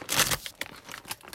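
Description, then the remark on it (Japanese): Crisp crinkling and rustling of the plastic wrapper of a package of taruyaki rice crackers (senbei) being torn open, a loud burst at first followed by several shorter crackles, with no talking. “あのー樽焼きっていうせんべいを開けた音だ。”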